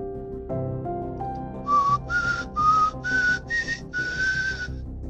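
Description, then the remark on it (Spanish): Someone whistles a short, bright tune, six quick rising notes in a bouncy rhythm, over a background of steady music-like tones. “Me salió del alma ese chiflidito.”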